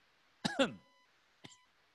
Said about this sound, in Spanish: Me dio tos.